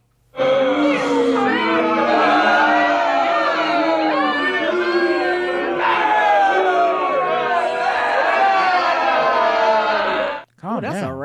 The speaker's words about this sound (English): rowdy crowd.